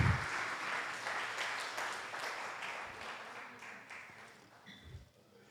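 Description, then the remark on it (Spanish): A church crowd applauds for Jesus and for the actors, with dense, steady clapping that holds strong for several seconds, then gradually thins and fades toward the end. “Dale un aplauso a Jesús y gracias por los actores.”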